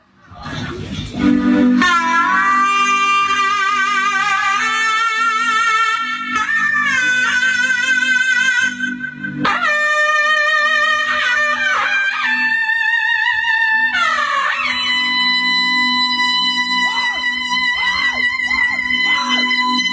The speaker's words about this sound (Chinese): 这阵的老妹儿卖点力气啊，呃，看这大喇叭小辈儿的小尖儿吹的怎么样，有没有拱过劲儿啊？